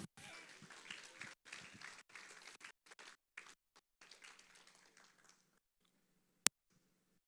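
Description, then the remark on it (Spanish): An audience breaks into applause for the Lord, dense and steady at first, then thinning into scattered claps that fade out after about five seconds, leaving near silence broken by one sharp click. “Un aplauso al Señor.”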